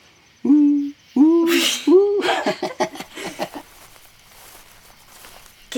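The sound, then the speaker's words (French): Three loud, clear owl hoots in quick succession, followed by a rapid run of softer, fading calls that trail off into quiet. Unaccompanied, with no talking. “Pas comme les chouettes. Qu'est-ce que c'est que cette histoire Bah oui, elles font tout le temps.”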